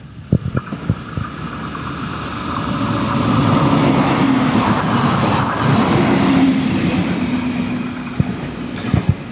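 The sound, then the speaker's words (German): A train rumbles past on the rails at a level crossing, swelling into a loud, steady roar mid-clip with metallic rattling and clacks at the start and end, no talking. “Achtung, jetzt kommt der Zug. Jetzt wird's mal kurz laut.”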